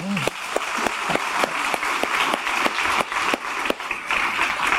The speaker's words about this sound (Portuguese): Estou muito feliz é, podemos aplaudir. Né?